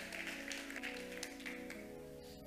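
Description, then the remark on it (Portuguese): An audience applauding the Lord, a dense wash of claps that holds at an even, fairly loud level for a couple of seconds, with a sustained musical tone underneath. “Aplauda o Senhor.”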